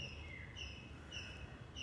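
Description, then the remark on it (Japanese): A bird sings a short, high whistled phrase that repeats about every half second. It is fairly soft, over a steady low background hum, with no voices. “こうやって忙しい時間の中で鳥のさえずりを聞きながら何もしないでいい目を閉じて何にも考えなくてもいいし何も心配しなくていい”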